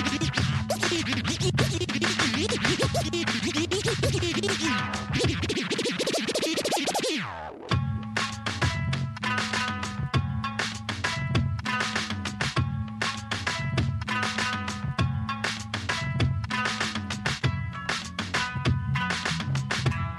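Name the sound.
music track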